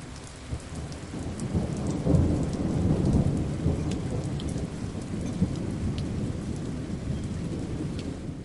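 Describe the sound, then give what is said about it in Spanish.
A thunderstorm: steady rain hisses and patters throughout while deep rolling thunder rumbles low and continuous, swelling around the middle. No voices, just the storm. “Ahora vamos ya con el capítulo dedicado a las tormentas.”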